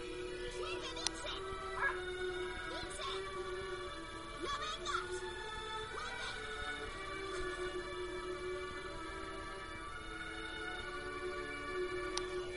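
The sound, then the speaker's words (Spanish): A small dog whimpers in drawn-out, high-pitched whines as it goes into the water, broken by a few short yips, over a steady tonal background hum. “Ah, el pobre perrito. Se mete en el agua, ¿ves? Pobrecito.”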